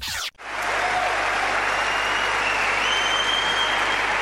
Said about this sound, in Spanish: this could take some time if every time I say your name that happens. But Roger, huge congratulations. We've had some... Cada vez que dicen Roger, el público aplaude.